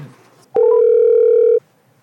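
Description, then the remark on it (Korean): A single steady telephone ringing tone sounds while a phone interview call to baseball pitcher Kim Dong-ju connects, a loud, clear electronic beep lasting about one second, with faint murmuring just before it. “미래를 좀 기대해 볼수 있는 선수가 등장한 것 같아서 오늘 전화 연결을 준비를 했습니다.”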